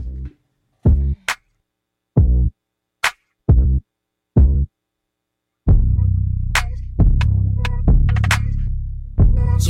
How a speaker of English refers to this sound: this is a song here by … for everyone that's listening right now